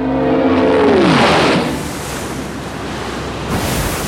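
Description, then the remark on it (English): A hundred-knot gale howls across a tiny tropical island with a loud, broad roar, opening with a descending tonal whine that slides down in pitch before settling into a steady rushing blast. “hundred knot gale screeched and howled across the tiny tropical island, and the palms bent and whirled their feathery fronds like weird mop headed creatures writhing in agony under the lash of a giant whip.”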